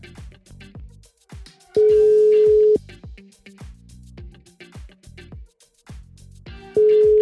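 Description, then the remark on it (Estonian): A telephone ringback tone: a steady, loud one-second beep, then a second one starting about five seconds later and cut off, heard over a rhythmic background music bed. “ma arvan, et äh, mõistlik ja väga viisakas oleks tegelikult äh, härrasmehel helistada, uurida, mis tema probleem on.”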